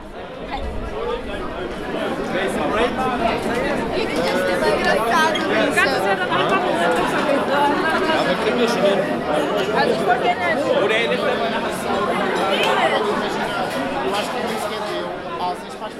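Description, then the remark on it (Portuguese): A dense crowd of many voices talking over one another, a steady lively babble of overlapping conversations filling Rua Cor-de-Rosa in Lisbon at night, amid dancing and beer in plastic cups, with no single speaker standing out. “Voltou o barulho, as conversas sobrepostas, as multidões, as danças, a cerveja em riste dentro de copos de plástico.”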